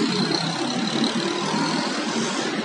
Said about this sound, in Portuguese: tipo esse carro que passou. A gente tá sujeito a isso acontecer, porque a gente tá aqui no meio de uma avenida. Então, ou a gente aceita que o carro vai passar e vai fazer barulho,